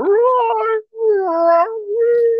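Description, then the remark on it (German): A person imitates whale song with three long, wavering, moaning tones, each sliding gently in pitch. The voice is fairly loud, with a brief pause after the first call and no speech. “So wie Wale unter Wasser reden, so das ja.”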